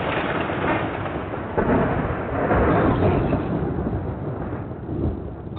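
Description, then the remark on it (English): A sustained, loud low rumble of thunder rolls on for several seconds, swelling midway, with a dense wash of rain or storm noise throughout and no voices. “I see the rain, but damn it, this storm is just ridiculous.”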